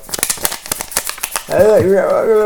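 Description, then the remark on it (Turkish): A crinkly plastic bag held in a hand rustles in a quick run of sharp crackles lasting over a second, then a voice takes over. “işte oradan bir böyle ses gürültü yaptın. Hışırtı yaptın. Elimde poşetle.”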